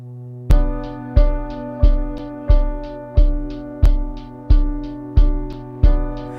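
A pop-rock track plays loud and close: a steady, punchy drum beat thumps about every two-thirds of a second beneath sustained chords, with no singing yet.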